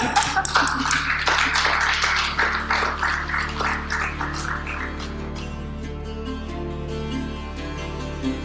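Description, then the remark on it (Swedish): A small group claps for people who were just interviewed, a dense burst of sharp claps at first that gradually thins into scattered, fainter claps over about eight seconds, with no one speaking. “Ja, ni ska ha Applåd till er!”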